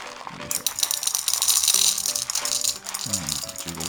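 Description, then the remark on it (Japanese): Coffee beans, from Asian coffee roasters and bought through the online coffee shop Heirloom (エアルーム), pour and rattle in a dense, continuous clatter of small hard pieces, loud and bright, with a few scattered ticks and a soft hum beneath while about 15 g is measured out; no one speaks. “え EC サイトエアルームというところまあえっ、とアジアのコーヒーのロースターさんをですね、え扱っている、えコーヒーの EC サイトなんです買った豆ですねこれをよいしょ”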